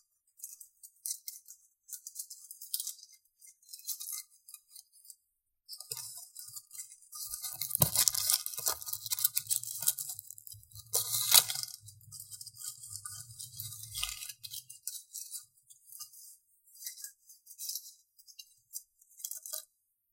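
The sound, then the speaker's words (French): Dry leaves crunch and rustle underfoot in bursts, crisp, with a denser stretch of crackling and low thuds in the middle before thinning out again. No one speaks. “Je préfère les feuilles à l'eau qui coule.”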